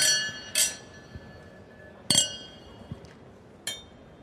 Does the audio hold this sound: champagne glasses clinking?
yes